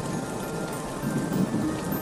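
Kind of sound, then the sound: nature, heavy rain falling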